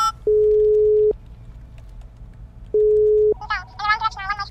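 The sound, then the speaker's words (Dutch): Two steady, even telephone ringback tones sound while a call is placed to the mayor, each lasting under a second with a pause between, before a voice briefly begins speaking at the end. “Maar goed, ik bel even de burgemeester.”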